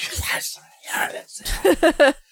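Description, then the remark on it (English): A voice imitates eerie sounds heard as a man runs in the rain in a film scene: breathy, noisy whispers at first, then a few drawn-out, wavering moans toward the end, all in short bursts. “As he's running, you hear like screams and moans and whispers”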